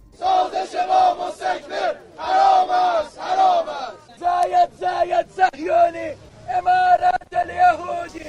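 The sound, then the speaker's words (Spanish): A crowd of several dozen Iranian protesters outside the United Arab Emirates embassy chants loudly in unison, voices rising and falling in short rhythmic bursts with brief pauses between phrases, sounding energetic. “Esta es una manifestación de este fin de semana de algunas decenas de iraníes frente a la embajada emiratí.”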